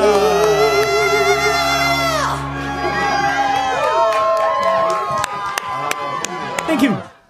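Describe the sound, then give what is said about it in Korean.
A sustained musical chord ends a live performance and cuts off, then a loud audience erupts in cheering, shouts and whoops, with scattered clapping, before the noise drops away abruptly at the end. “여러분들 건강히 다녀오라고 성인 연기에 박수 부탁드립니다.”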